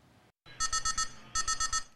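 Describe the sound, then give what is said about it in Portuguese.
An anti-drone system alert at a prison in Minas Gerais, warning prison police of a drone entering the unit's security perimeter, beeps loudly in two rapid bursts of about five high, harmonic-rich pulses each, separated by a short pause, over a low steady background hum with no voices. “O sinal sonoro alerta os policiais penais sobre a invasão de um drone no espaço aéreo, no perímetro de segurança da unidade prisional.”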